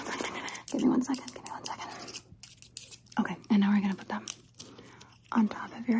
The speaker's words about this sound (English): I just need to sharpen these tools real quick.